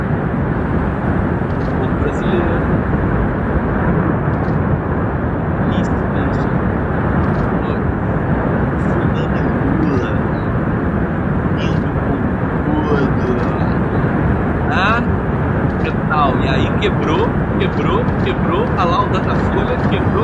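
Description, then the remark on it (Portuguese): Giant ocean waves at Nazaré crash in a continuous, thunderous roar, a dense wall of rushing water noise that stays loud for the whole stretch without pausing. “Olha, olha o barulho da onda.”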